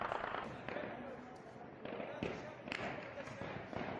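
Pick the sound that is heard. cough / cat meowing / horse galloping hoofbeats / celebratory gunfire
celebratory gunfire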